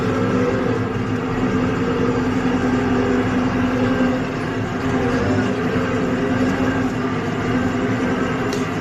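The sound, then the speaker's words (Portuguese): Heavy bus engines idle steadily, a constant low rumble with a droning hum that holds unchanged throughout, with no voices over it. The buses carry nearly 900 workers of a company building a thermoelectric power plant in Roraima, Brazil. “É esses ônibus aqui, ó. É que carrega os quase 900 funcionários aqui de uma empresa que está fazendo uma termoelétrica.”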